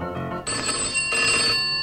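A telephone rings loudly, its bright electronic tone starting abruptly and pulsing in two bursts with no one speaking over it.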